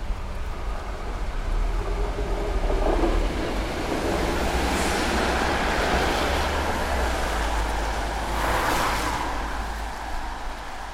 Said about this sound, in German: Die Uhrzeit 12.44 Uhr. Der Ort Stadtbahnhaltestelle Südheimer Platz, Stuttgart-Heslach. Das Wetter feiner Regen, nasser Boden, Pfützen.